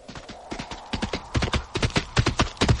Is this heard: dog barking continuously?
no